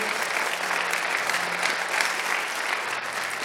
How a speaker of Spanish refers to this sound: Le da un aplauso, Señor, si usted lo entiende.